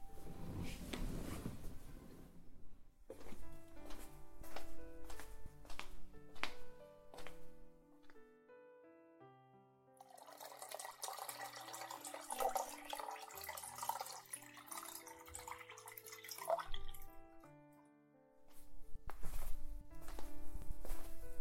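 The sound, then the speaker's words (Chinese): Soft footsteps, then warm boiled water pours steadily into a glass for several seconds, a hissing gush that stops abruptly, all over gentle tinkling background music. “哥哥去给你倒杯温开水。”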